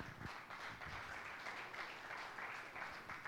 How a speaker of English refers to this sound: Come on, you can clap.